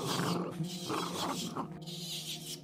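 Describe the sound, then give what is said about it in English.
A dog named Tig growls steadily at a monkey, a low, rough rumble that pulses and swells for a few seconds without a break, with no one speaking. “And Tig keeps growling at the monkey.”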